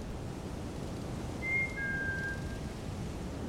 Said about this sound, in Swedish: Var det den vinande vinden? Nej. En, en vissling? Ja, ja det var det.